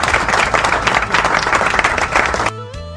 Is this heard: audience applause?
yes